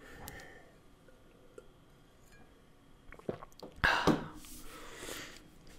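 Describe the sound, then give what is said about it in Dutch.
A person takes a sip of water: soft mouth clicks and slurping, then a swallow and a breathy exhale. The sounds are quiet and no one speaks. “Ik zal eventjes een slok van mijn water drinken.”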